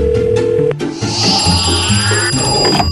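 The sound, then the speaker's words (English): A telephone rings loudly, a steady electronic trill of bright sustained tones that shifts pitch partway through and continues without pause. No one speaks. “I didn't get a phone call from the afterlife asking for ghost bail money for my grandma, so hopefully she behaved.”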